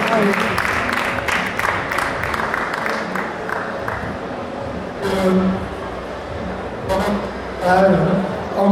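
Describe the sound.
An audience applauds steadily for several seconds, a dense wash of many hands clapping at once, with scattered voices and a few calls rising over it near the end.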